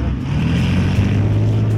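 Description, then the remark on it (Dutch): A Leopard 2 heavy battle tank, a 60-ton vehicle, drones loudly and steadily: a deep low engine rumble with a broad grinding noise over it from its tracks rolling across rough terrain, unbroken. “het gebrom van de motor en het geluid van de rupsbanden over ruig terrein van een tank Leopard 2.”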